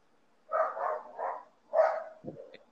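A dog barks four or five times at a house in an uneven run of short, fairly loud yaps, with no one talking over it.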